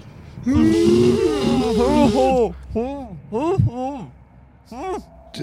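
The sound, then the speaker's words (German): A voice imitates a muffled scream, as if through a mouth stuffed with an apple: a long strained cry followed by several shorter, rising and falling groaning yells, fairly loud. “Ah, ihr habt, ihr habt glaube ich, Äpfel also, im Maul, oder?”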